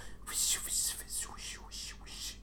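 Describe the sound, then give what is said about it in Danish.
A voice imitates whispered background 'dark speech': a run of breathy, hissing syllables in several quick bursts over about two seconds, moderately loud, with no voiced speech. “Der stod sådan et eller andet fis, og man kunne høre sådan noget”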